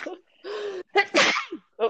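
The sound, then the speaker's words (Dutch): A single sharp sneeze bursts out, framed by a short laugh and a brief spoken exclamation from another voice. “gezondheid.”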